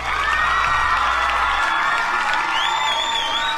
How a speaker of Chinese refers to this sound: 我们应该放一段特别特别特别特别欢快的欢呼声，来激励自己更努力的成长。